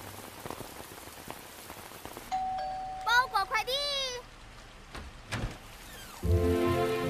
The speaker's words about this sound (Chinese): 哦哦，真的在下雨呢。